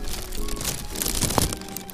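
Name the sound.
heavy rain falling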